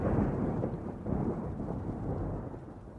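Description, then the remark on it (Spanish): A low, continuous rumble of thunder rolls steadily throughout, deep and heavy, with a faint hiss like rain underneath and no voices. “¿No oyen los truenos? Sí, sí, sí se oyen.”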